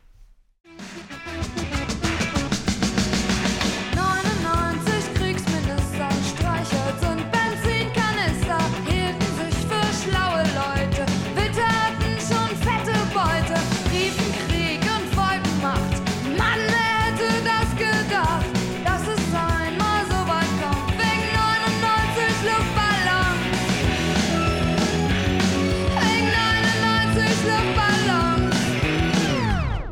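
A German-language pop song plays loud and steady after a brief quiet start, with a full band sound and melodic lines running throughout, no talking over it.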